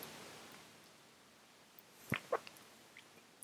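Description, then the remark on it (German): A quiet pause, then a small sip from a drink: two brief, soft gulping sounds, followed by a faint tap near the end. Nobody speaks. “Moment, ich will mal ganz kleinen Schluck trinken.”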